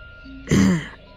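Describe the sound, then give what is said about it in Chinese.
A single short, husky cough from a middle-aged man beside a bed, with a low voiced rasp to it, rising sharply out of a quiet background hum and fading within half a second. “依旧是那种中年男人的咳嗽声。”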